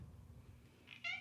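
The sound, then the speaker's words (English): A single short, loud meow from the speakers' cat, Miss Purrington, cuts in after a stretch of quiet low background rumble, ending abruptly. No one speaks. “Oh, that's our cat being annoying.”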